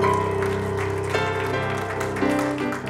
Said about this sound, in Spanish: Den un aplauso fuerte al Señor porque Él es bueno.